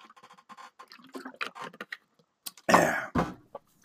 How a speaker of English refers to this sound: Um, before I start on that, let me take a sip of my ice cold beverage. Right now would be a good time for you to do the same.